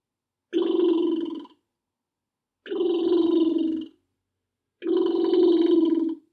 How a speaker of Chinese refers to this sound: 这是什么声音？你们知道吗？嗯，很多人啊，应该都知道这是猫头鹰的叫声。